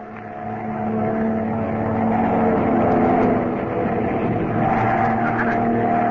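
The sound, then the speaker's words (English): A loud airplane engine roars steadily as the plane is put into a power dive, swelling in the first second and holding a strained, droning pitch throughout, unbroken, with no voices. “Our only chance is to put this plane into a power dive.”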